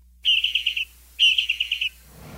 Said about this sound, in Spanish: Es un pinzón pequeño de árbol